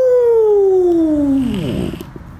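A single long, drawn-out cat meow, loud, sliding steadily downward in pitch before breaking into a short wavering trail and fading out.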